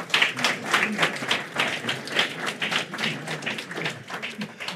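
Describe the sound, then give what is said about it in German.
An audience applauds steadily for several seconds to welcome an author presenting a new book, a dense patter of many hands clapping at once, even in loudness throughout. “Noch einmal herzlich willkommen, Landolf Scherze. Applaus”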